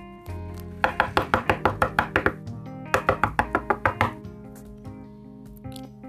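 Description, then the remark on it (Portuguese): Two quick bursts of rapid, sharp raps on a door, roughly eight knocks each with a brief pause between, heard clearly over soft background music. “E de repente, alguém bateu a porta.”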